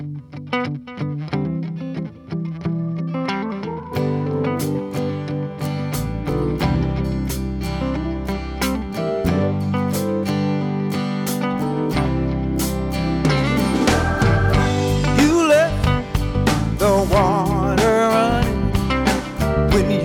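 A blues band recording plays at a steady, full volume, with gritty electric guitar over bass and drums driving a continuous groove, and no talking over the music.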